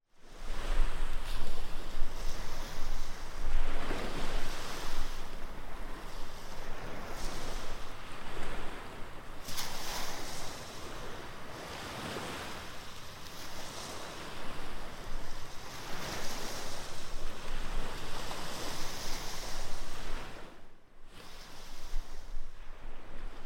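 Sea waves break steadily on a sandy beach, surging and washing back every few seconds in a loud, continuous roar, with a touch of wind and no voices.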